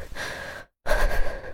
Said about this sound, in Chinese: 于西大口喘息着，想镇定下来，却愈发感觉天旋地转。